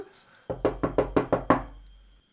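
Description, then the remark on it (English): Six sharp, evenly spaced foley knocks on a door in quick succession, fairly loud, with no voices, ending in a short resonant decay. “He uh, opens the door. We're gonna add a lot of foley in this episode.”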